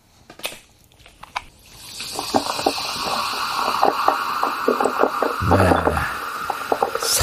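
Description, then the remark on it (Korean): A couple of sharp metallic clicks as a can of lemon-lime soda or cola is opened, then a steady, fizzing pour over ice, with crackling bubbles and occasional ice knocks, fairly loud. “사이다나 콜라 이렇게 캔탁 따가지고 따르는 소리입니다. 네. 얼음 사이사이로, 예, 들어가는 소리.”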